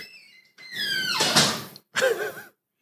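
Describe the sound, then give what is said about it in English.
A door hinge creaks open with a long, rising squeal, then gives a shorter, wavering squeak a moment later, fairly loud with nothing else around it. “I'm going to oil that door is what I'm going to do.”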